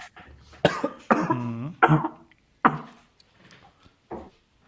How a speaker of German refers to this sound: Ach, dieses Wasser. Hat er sich verschluckt.